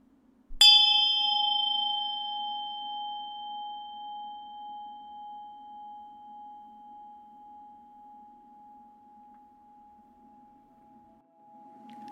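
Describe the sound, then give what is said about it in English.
A single strike of a Tibetan Buddhist ritual bell, a gift from the monk Palga Rinpoche, rings out clearly, its bright tone shimmering and slowly fading over about eleven seconds with a gentle pulsing waver, alone with no voices. “He said that in Tibetan Buddhism, this bell is a symbol of wisdom and this mace is a symbol of compassion.”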